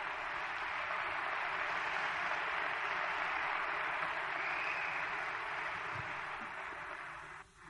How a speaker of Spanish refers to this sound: Qué bueno que aplaudiste. Te voy a explicar un poquito sobre el aplauso.